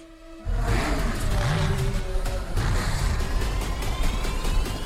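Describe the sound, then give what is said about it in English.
Loud, continuous roar of racing car engines revving and whining up in pitch, with rising tonal sweeps and rumbling bass, intense for the whole stretch after a brief quieter start. “It comes down to a race. Comes down to a race. It seems like it looks like a Mad Max race, right?”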